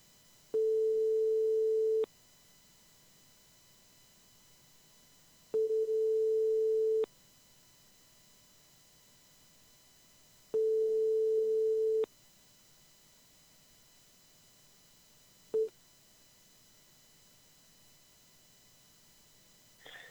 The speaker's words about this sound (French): Allez, c'est parti. On, on va aller du côté de, Bordeaux. J'espère qu'il ne me reconnaîtra pas parce que bon. Allez, attention, on appelle. Première sonnerie. Nous partons du côté de Bordeaux. De Bordeaux.